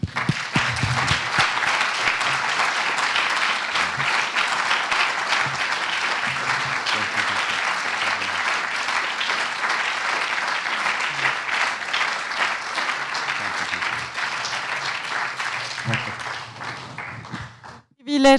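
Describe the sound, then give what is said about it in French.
Sustained audience applause at the end of an evening talk, applauding the speaker: a dense steady wash of many hands clapping for about seventeen seconds at a fairly loud, even level, then stopping abruptly. “On va vous applaudir d'abord.”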